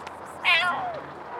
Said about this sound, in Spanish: Uy, un gato delante de nosotros, qué susto. Hola, uy, hace miau.